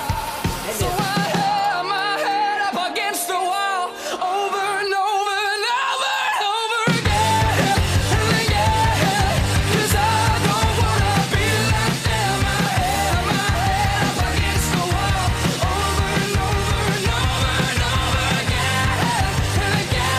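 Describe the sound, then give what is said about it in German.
A modern rock song with high, soaring vocals over guitar; it opens sparser, then the full band crashes in with driving drums and distorted guitars, loud and dense through to the end. “und wow, geiler Gitarrensound, sehr modern, bisschen rockig, aber auch mal nicht.”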